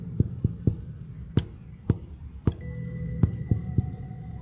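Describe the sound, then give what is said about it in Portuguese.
Knocks on a tabletop tapping out SOS in Morse code: three quick taps, three slower spaced taps, then three quick taps again, fairly loud over a faint hum. “Enquanto ela fazia as batidas na mesa, um arrepio percorreu minha espinha quando reconheci o padrão daquelas batidas.”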